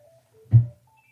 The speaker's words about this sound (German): Das Telefon hat eigentlich noch weiter geklingelt, aber wir haben es rausgeschnitten und wir tun einfach so, als wäre das Klingeln hier zu Ende gewesen.